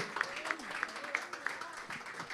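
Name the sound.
audience applauding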